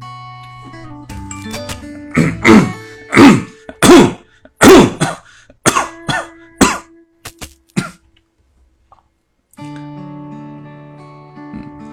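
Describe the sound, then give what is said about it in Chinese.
A run of about eight or nine loud, harsh coughs, coming in quick uneven bursts with brief throat-clearing, then trailing off into quiet with a low steady hum underneath; a person coughing during a livestream, having switched off the microphone. “我刚刚咳嗽，我把话筒给关了，你们还能听见吗？”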